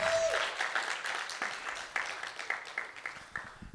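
A group of people clap together in a steady burst of applause, many overlapping hand claps forming a dense wash that gradually thins toward the end.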